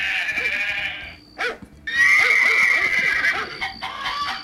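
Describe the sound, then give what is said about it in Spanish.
A goat bleats loudly and insistently in two long, wavering cries separated by a brief pause, with a strained, nasal quality, played from a video, with no one talking. “Caballos, chanchos, gallinas. Y el cabro.”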